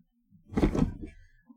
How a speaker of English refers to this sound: Oh. You plummeted into that chair. Yeah. Goodness. What an effort.